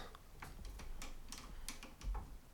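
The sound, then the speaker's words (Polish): A series of crisp mechanical clicks as the piano keys of a cassette deck, from about the late 1970s or early 1980s and fitted with a DIN socket, are pressed, irregularly spaced and fairly quiet, with a faint low hum in the background and no voices. “Teraz posłuchamy, jaki dźwięk wydają klawisze. Naciskam start.”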